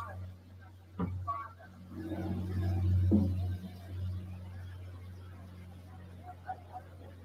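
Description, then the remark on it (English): A plane passes overhead in West Maui making announcements, over a steady low engine hum. Its sound swells to a peak midway, then drops in pitch and fades as it moves away. “You can hear the, the Doppler effect. It's a high pitched noise as it comes towards you, and then it switches to a low pitched voice as it leaves.”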